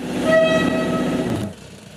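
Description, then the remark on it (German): A loud, steady warning horn from an automatic track warning system (ATWS) at a railway track worksite blares on one sustained, harmonically rich tone for about a second and a half, then cuts off abruptly, leaving a low background rumble. “Nicht, weil es nicht laut genug wäre, sondern weil man sich irgendwann an das Tröten gewöhne.”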